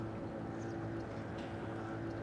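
A boat engine drones steadily, a low continuous rumble with harmonic hum that holds even throughout, as a motor vessel pulls away from the harbor.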